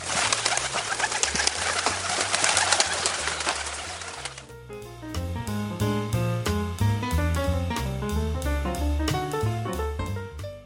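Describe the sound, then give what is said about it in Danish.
A loud burst of rustling wing flaps as a flock of pigeons sitting on a rooftop opposite a hotel in Italy, startled by a man's singing, suddenly takes off and flies far away, fading after a few seconds into a steady run of plucked musical notes. “Nogle duer, som sidder på en tagryg på huset over for deres hotel, bliver så forskrækket over farens sang, at de straks letter og flyver langt væk.”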